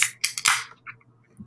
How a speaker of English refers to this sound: Oh, you're cracking a beer already, huh?